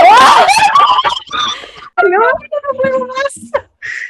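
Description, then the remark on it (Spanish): Several voices cry out loudly in surprise as a phone rings, a burst of high-pitched yelling that breaks into snickers and laughter, energetic over about four seconds. “Es que la cagó la no, pero nuestro grito lo dijo todo.”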